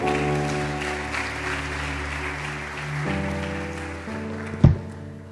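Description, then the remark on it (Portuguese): A crowd applauds the Lord steadily for several seconds while sustained keyboard chords play underneath, shifting pitch a couple of times, with a brief louder thump near the end. “Vamos aplaudir o Senhor pela vida”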